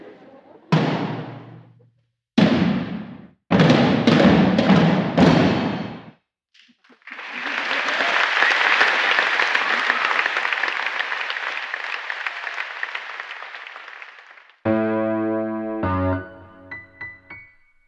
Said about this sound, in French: Après ces applaudissements, place à l'analyse.